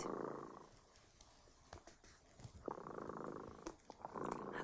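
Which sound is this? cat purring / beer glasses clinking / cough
cat purring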